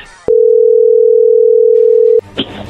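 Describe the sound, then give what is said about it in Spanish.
One loud, steady electronic ringback tone of an outgoing phone call holds for about two seconds, with brief faint background noise just before and after it. “Pero bueno, vamos a llamarle en este momento.”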